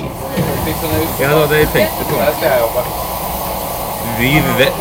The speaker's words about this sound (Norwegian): Vi er jo på tog. Det er vi.